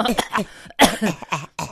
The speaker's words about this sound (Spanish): O sea, hasta nuestra tos se oye clarita. ¿Hasta nuestra qué? Tos.